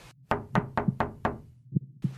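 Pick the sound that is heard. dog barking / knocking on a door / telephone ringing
knocking on a door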